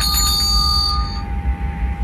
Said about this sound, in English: My bell sounds different up here at 60,000 feet.